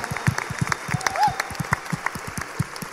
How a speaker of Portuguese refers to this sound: Eu fui aprovada com nota 10. Você pode aplaudir? Uau!